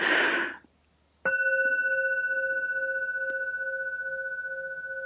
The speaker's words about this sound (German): Und das ist der Klang. Der Klangschale.